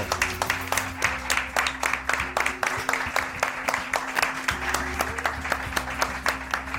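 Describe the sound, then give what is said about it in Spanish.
A live audience applauds steadily for several seconds as three guests are welcomed to the table, many hands clapping in a dense, continuous patter, with a low steady hum underneath. “Un aplauso.”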